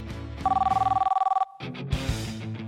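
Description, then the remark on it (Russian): A telephone rings loudly in one short burst of rapid, trilling two-tone pulses lasting about a second, then stops abruptly as busy background sound continues. “в любой момент могут позвонить граждане, у которых имеется телефон, вот, как э, и рабочий, так и личный, потому что рабочий может не работать, всегда звонят на личный.”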